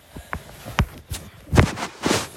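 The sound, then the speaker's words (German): A few soft footsteps, followed by a couple of louder knocks and thuds as a door is pushed shut. No one speaks. “Das ist viel zu laut, ich muss wieder Tür zu machen.”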